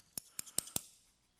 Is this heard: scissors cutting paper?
yes